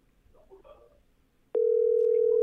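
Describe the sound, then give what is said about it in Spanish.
After a second and a half of faint background murmur, a loud, steady telephone ringback tone starts abruptly and holds unbroken to the end. “Tres tonos.”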